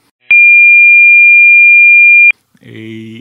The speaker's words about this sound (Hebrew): אז הגובה של הצליל זה, ה, זה התדר. ואני הבאתי שתי הדגמות ואנחנו נשמע אותן. אה, תדר, מה שאנחנו קוראים אה, קול נמוך זה תדר נמוך, אה, הדוגמה הראשונה היא של 440 הרץ.